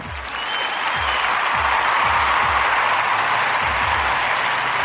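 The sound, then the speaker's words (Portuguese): A steady round of applause, dense clapping from many hands sustained at an even loudness for several seconds, with a few low thumps underneath and no talking. “Salvo de palmas pro guerreiro.”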